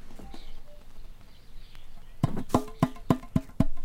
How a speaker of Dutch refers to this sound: De vogels. De bosrietzanger. Dankjewel, kleine vriend.